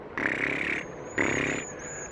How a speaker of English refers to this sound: Oh my goodness, there must be 20? 21 birds, 21 cedar waxwings.